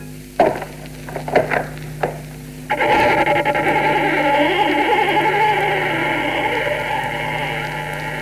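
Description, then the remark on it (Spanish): A door is opened stealthily, easing open with a few short creaks and soft clicks, followed by a steady burst of radio-like sound with wavering tones that continues to the end. “Sigilosamente abrió la puerta.”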